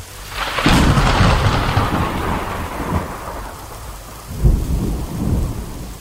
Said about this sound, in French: Mais ce jour-là, la course a lieu sous la pluie. Mais pas une petite averse, un déluge.